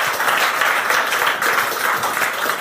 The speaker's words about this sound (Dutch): Applaus alvast voor Tom van Giel en André van Duin.